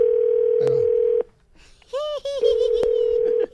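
A steady, low-pitched telephone dial tone hums for about a second while a prank phone call is being placed, cuts out briefly, then returns, marked by sharp clicks and a short warbling burst near the restart.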